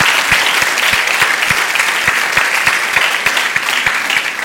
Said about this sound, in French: Oui, vous pouvez applaudir. Vous pouvez applaudir, vraiment.